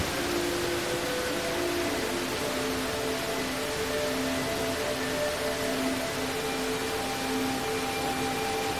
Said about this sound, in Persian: حالا با تمام وجود در زیر این باران زیبا دست ها رو از هم باز کردید احساس میکنیم هر کدوم از این قطرات نعمت هایی هستند که برای تو جاری میشن